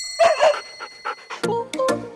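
A dog barks a few times, starting with softer yelps and whines and ending with two sharper, louder barks. No one speaks.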